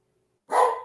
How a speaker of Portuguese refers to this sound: Não, na, na verdade, meus cachorros estão atacados aqui agora. Porque eles viram gato.